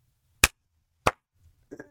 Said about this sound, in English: like the two morons in the back that don't even know what they're applauding.